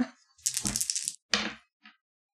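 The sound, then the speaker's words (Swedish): A die clatters as it is rolled: a sharp, rattling burst of tumbling clicks, a shorter second clatter, then one faint final tick as it settles. No one speaks. “Yes, en tärning!”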